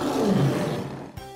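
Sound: tiger roar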